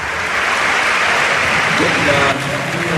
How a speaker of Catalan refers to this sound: Bona ovació per ells dos, eh? Els dos futbolistes que marxen.